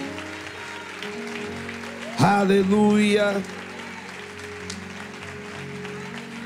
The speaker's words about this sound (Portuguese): Mas dê o aplauso da vitória.